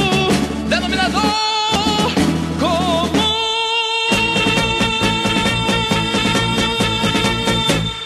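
A 1975 Brazilian pop song plays loud: a full band with steady bass and rhythm, a sung melody on top, and a brief drop-out before the music surges back.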